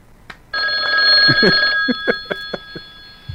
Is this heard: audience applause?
no